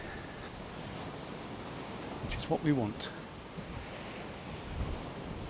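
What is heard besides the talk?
seaside waves and wind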